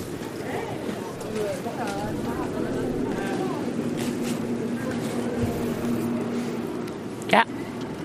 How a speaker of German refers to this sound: Ah, die Müllabfuhr. Typisches Geräusch. Die Müllabfuhr.